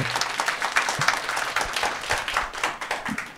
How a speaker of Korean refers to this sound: 우리 여자분께 또 나와주셨는데 큰 박수 부탁드리겠습니다.